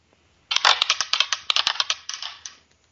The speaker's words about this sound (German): Ähm, komm, würfel mal.